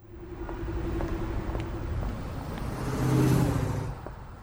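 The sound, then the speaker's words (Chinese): A taxi carrying two people drives off toward a construction site with a steady engine hum and broad road rumble. The revving swells louder toward the end, then eases slightly. No one speaks. “两个人打了一个计程车，一起往工地行驶而去。”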